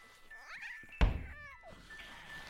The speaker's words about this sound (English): But from the bedroom, with a dull thump, Reg dragged her dead mother's corpse. With each heave and pull, Reg wheezed and panted as he struggled to haul the lifeless body into the landing.